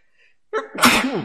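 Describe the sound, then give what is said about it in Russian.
A single sharp sneeze bursts out after a brief quiet moment, with a quick inhale leading into a loud, breathy explosive release. “Будь здоров.”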